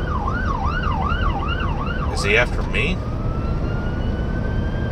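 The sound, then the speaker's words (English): A police car siren wails in fast rising-and-falling cycles over steady road rumble as the police car drives past the speaker's vehicle, breaks off in a short harsh burst, then shifts to a long rising tone. A man speaks briefly. “oh boy there's there's the cops i don't know what in the world is going on here”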